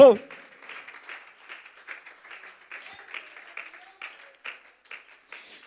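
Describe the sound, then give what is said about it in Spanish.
A crowd claps steadily throughout as applause for the presence of Jesus Christ, a moderately loud, continuous patter of many hands, with some voices calling out faintly underneath. “Un aplauso para su preciosa presencia, para su dignidad”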